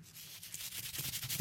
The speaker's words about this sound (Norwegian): Ja, det høres ut som du gir noen kokos. Det er lyden av en oppvaskkost.